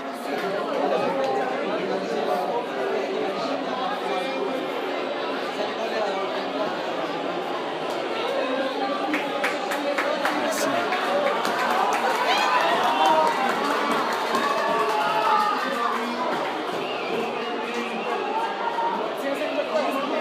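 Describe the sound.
A large stadium crowd at a football match roars continuously after a penalty is awarded to England, with a dense wall of overlapping shouts and chanting voices, steady throughout, with scattered sharp claps rising in the middle.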